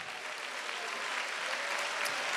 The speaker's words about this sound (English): Let's give the Lord a hand clap of praise right now.